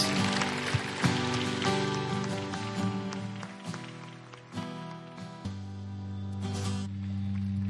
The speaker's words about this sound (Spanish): Que nos dan un aplauso a todos los que hicieron esa oración por primera vez.